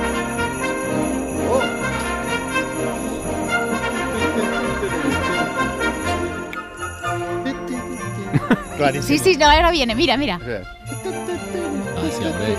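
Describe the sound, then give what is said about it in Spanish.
An instrumental Christmas carol plays steadily at moderate volume with bright, tinkling melodic tones, while a person briefly speaks over the music near the end. “Bueno, y dio en el clavo, o sea, banda sonora navideña, de hecho, la música se ha convertido en una especie de, villancico instrumental, si es que la vais a conocer, aquí suena.”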